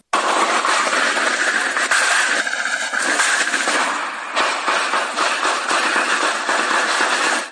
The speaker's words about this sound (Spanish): a las 10 de la mañana se indicaba la incursión de dos grupos armados en la comunidad de Aguacaliente de los Monzón y según versión de los vecinos duró aproximadamente 40 minutos y así se escucharon los disparos.